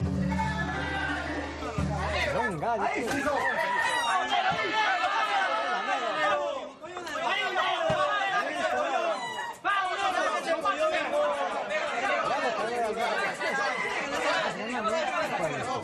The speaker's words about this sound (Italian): Questa volta l'importazione dovrebbe arrivare dalla penisola iberica e si tratta del micidiale combattimento dei Galli.